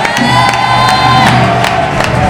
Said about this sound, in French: Alléluia! Est-ce qu'on peut acclamer très fort les seigneurs